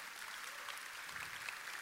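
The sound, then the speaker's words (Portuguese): A church audience applauds Jesus in a steady, dense wash of many hands clapping, kept at an even, fairly soft level throughout with no distinct voices above it. “Você crê, aplauda Jesus.”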